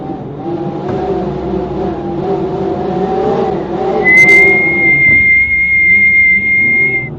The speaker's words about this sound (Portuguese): Nesse mesmo momento, um vulto de cor vermelha passou por eles e um assobio quase ensurdecedor aconteceu.